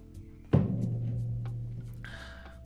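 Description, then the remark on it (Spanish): A sharp clunk, like a bottle or glass being set down, followed by a low hum and then a short burst of drinking water pouring into a glass with a ringing tone. “voy a echarme agua mientras... Echarme agua mientras tanto.”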